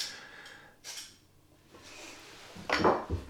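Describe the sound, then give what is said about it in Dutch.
A small Opinel pocket knife being sharpened before starting work: a few scraping metallic strokes, irregularly spaced, with the last one loudest and longest, and no talking. “Ik slijp hem even. Dat hoor je ook.”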